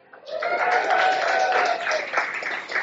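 A crowd breaks into loud applause, dense overlapping clapping mixed with cheering voices, holding steady for nearly three seconds before starting to thin slightly at the end.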